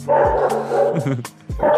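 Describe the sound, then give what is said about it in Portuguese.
A dog barks loudly, letting out several sharp, yelping barks in quick, uneven bursts across the short moment. “Seu cachorro inteligente tá, tá, tá brigando com você aí”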